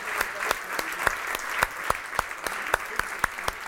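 An audience at an event applauds steadily for the event's organizers, a dense wash of many hands clapping with a few sharper individual claps standing out at a fairly regular pace, moderately loud and without talk.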